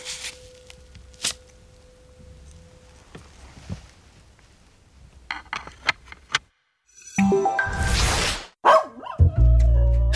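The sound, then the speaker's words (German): A dog barks in short, sharp bursts, a few scattered yaps at first, then louder barking and yelping toward the end, with no voices. “Ja, ist schon super, wenn man so einen Hund hat, weil so ein Hund ist ja auch wie so ein Kind, ne?”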